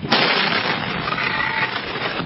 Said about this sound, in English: The explosion sparked many other fires in the surrounding area.